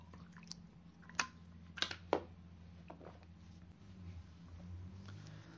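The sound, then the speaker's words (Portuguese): Someone drinks water: a few soft, wet gulps and mouth clicks bunched together around the middle, with no talking and a faint low hum behind. “Vou tomar minha água aqui, com todo respeito.”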